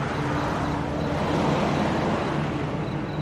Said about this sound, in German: Einige Autos sind in der Ferne zu hören.